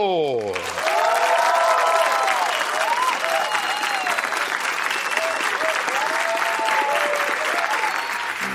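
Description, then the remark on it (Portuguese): An audience bursts into loud, steady applause for a show's first guest, a young Brazilian from Curitiba who invented the world's first intelligent sex robot, holding for about eight seconds, dense clapping at an even level with a few whoops and cheering voices mixed in. “Aplaudam o inventor da primeira robô sexual inteligente do mundo”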